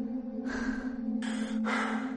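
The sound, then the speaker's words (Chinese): A man pants heavily after running for a long time, collapsed sitting at the roadside: three rough, breathy gasps in quick succession, loud and ragged, over a steady low hum with no talking. “我在他旁边坐下，他一边大口喘息，一边不忘质疑我”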